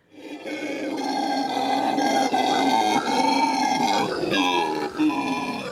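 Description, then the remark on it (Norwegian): A howler monkey's loud, sustained guttural grunting roar, droning continuously with rough harmonic layers and slight swells, with no talking. “Dette er lyden av en brølape.”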